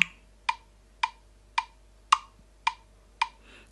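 A recording device's metronome, selected in its default setting, ticks steadily, seven sharp, bright clicks about half a second apart, each with a quick decay, with no voices over it.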